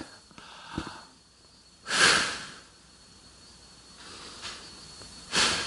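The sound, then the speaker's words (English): Slow, deep breaths drawn and released, airy and hissing, with a long exhale followed by quieter, softer breaths and pauses between them; no talking. “And I'll just take some time to breathe deeply.”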